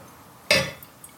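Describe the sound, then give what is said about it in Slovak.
A single sharp glass clink rings out and fades within a fraction of a second, followed by two faint, light taps, with no one speaking, as red wine is poured into wine glasses. “Troška alchymia s nalievaním.”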